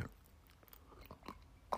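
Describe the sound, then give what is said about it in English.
Quiet sipping of coffee from a cup: a few short, soft wet mouth sounds and slurps, ending with one slightly louder gulp, with no talking. “Speaking of that coffee, let me take a little sippy cup”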